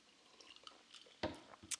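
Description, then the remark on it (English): Faint liquid sounds in a glass of watermelon vodka: soft drips and sloshing, punctuated by two brief, slightly louder clinks near the end. Quiet, with no talking. “Uh, and if you hear clink, clink, clink, I have a glass of this is a watermelon vodka.”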